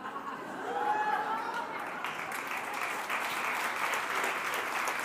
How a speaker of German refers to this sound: Er applaudiert.